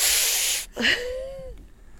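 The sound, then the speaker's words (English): A person sharply draws air in through their teeth, as done when something is awkward and not a good choice, making a steady hiss for over half a second, then a brief breathy burst with a faint sliding vocal tone. “I like went through my teeth. You know, like when something's oh. awkward and not a good choice, you go.”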